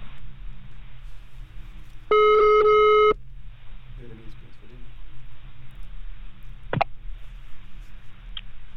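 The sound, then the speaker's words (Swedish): A single steady, mid-pitched telephone ringing tone of an outgoing call to a marine biologist in Tromsø sounds for about a second, loud and buzzy, over a low background hum; a sharp click follows a few seconds later. “vad, vad fint att vi kan få ringa dig.”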